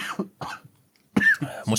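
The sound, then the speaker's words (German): A series of harsh coughs: two short bursts, a brief pause, then a louder, raspier fit of two more coughs, with no talking. “da verschluckt er sich gleich an seiner Luft.”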